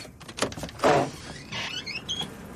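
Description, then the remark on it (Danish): A door opens as guests come in from the cold, windy outdoors in northern Norway, east of Kirkenes: a short scraping rush, then a drawn-out, rising squeak of the hinges, moderately loud against a quiet background. “Luk, skynd jer lukke døren, så blæser det for meget.”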